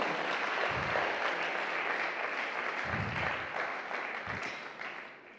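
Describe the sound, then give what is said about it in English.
A crowd applauds steadily, a dense wash of clapping that holds strong for several seconds before tapering off slightly at the end, applauding the church's kids and young people. “Can we just take a minute to applaud our kids and young people?”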